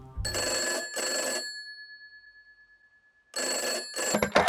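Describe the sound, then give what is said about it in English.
An old-style telephone bell rings loudly in a double burst, its metallic tone lingering through a pause before a second double ring begins. It precedes a recorded 999 emergency call to the Gardaí at 1.42am from the Stardust disco. No voices. “All 999 calls were automatically recorded and the time logged. Peter called the Gardaí at 1.42am.”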